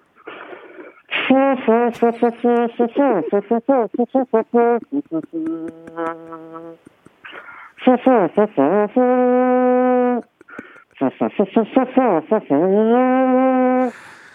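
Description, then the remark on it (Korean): A voice imitates a military reveille bugle call, loud and close, with quick rapid-fire tooting notes that break into long held brassy tones, repeated in several phrases. “군대 기상나팔 소리 한번.”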